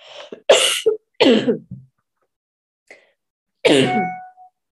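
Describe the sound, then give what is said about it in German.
A person coughs, several harsh, loud bursts in quick succession with a short throat-clearing rasp, then a brief pause before one last strained cough. No talking. “So, jetzt musste ich mal kurz husten.”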